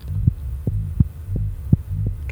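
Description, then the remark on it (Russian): A muffled, rapid heartbeat of an unborn baby whose sex is not yet known: low, soft thumps repeating steadily about three times a second over a constant deep droning hum, with no voices. “Итак, внимание, дорогие мои. Вот оно. Мое сердце.”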